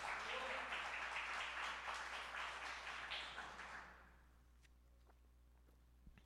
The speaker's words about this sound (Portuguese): Aplaude o Senhor, então, que vocês estão muito quietos.